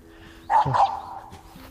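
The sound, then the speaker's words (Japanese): A small dog playing with a ball barks in a short burst of two or three quick, bright yips, clear, followed by a brief fainter sound before things quiet down. “いしょ、うまあね 今ワンちゃんがボール遊びしてて”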